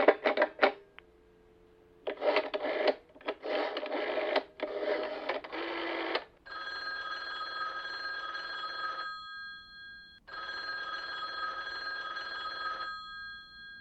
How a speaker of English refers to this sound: No, sit down. I'll I'll give 9B a ring first on the house phone.